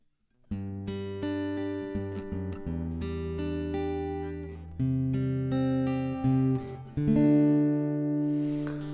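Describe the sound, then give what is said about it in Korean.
The gentle instrumental main theme of the 1960 Broadway musical The Fantasticks plays, with sustained, mellow chords shifting slowly over a steady, moderately loud level, and no voices. “메인 테마곡이고 근데 이 곡이 이 노래가 너무 아름다워서”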